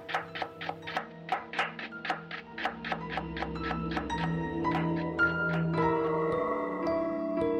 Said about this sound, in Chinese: 不一会儿，从李正振的厨房里又传出了剁肉的声音。